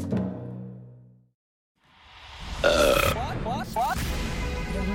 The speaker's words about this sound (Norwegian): Ja ja, hvem hadde trodd at det kunne skjule seg så mye fascinerende forskning bak en så grunnleggende menneskelig ting som en rap?